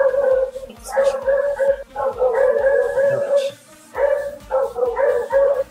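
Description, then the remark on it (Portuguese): Dogs behind a barred gate bark and yelp in long, excited, high-pitched bursts, four loud clusters with short pauses between, while a person speaks briefly over the commotion. “É legal, ele, ele põe o gato pra arranhar uma árvore que é bem na frente do portão de grade que fica os cachorros.”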